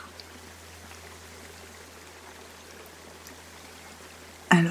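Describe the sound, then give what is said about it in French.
A gentle stream flows steadily and calmly with a soft, continuous babble of running water, before a sudden louder burst near the end. “que l'eau s'écoule doucement, calmement.”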